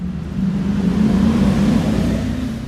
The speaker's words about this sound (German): Lärm nervt. Die Motorradfahrerin, die mitten in der Stadt die Maschine aufheulen lässt